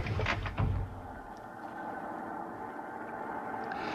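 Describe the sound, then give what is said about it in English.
A heavy truck door thumps shut with a couple of quick clunks, then the truck engine turns over and settles into a steady rumbling idle as the driver gets back in to start driving. “Then I went back to the truck and started driving.”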